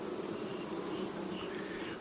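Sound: wild bees buzzing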